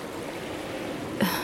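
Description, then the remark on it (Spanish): Rushing river water churns in a steady, dense roar as it engulfs a car that has fallen down a ravine, then swells into a louder surge just before the end. No voices are heard. “Y luego el fuerte estruendo del agua al envolver el auto con su poderosa fuerza.”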